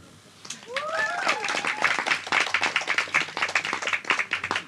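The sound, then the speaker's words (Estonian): A panel discussion audience applauds as a panelist is introduced; the applause swells in after a short pause and holds as dense, steady clapping from many hands, with a brief high-pitched cheer rising over it near the start. “teeme aplausi.”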